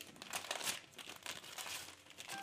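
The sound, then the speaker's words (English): Paper crinkles and crackles steadily as a gift wrapped in wrapping paper is unwrapped, with bursts of crumpling and a brief tearing rustle, loud and continuous throughout. “The wrapping paper is really good though”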